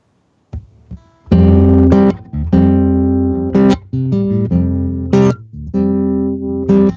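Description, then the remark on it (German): A slow ballad begins with sustained, ringing melodic notes played one after another in a gentle, unhurried rhythm, fairly loud and without any singing yet. “darum spiele ich gerne nochmal eine Ballade”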